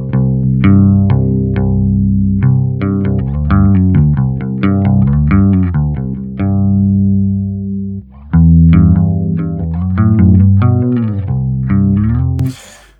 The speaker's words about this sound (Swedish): eh, någon slags korus. Men nu, det här låter ju inte stereo här. Men för, men för lyssnarna låter det stereo.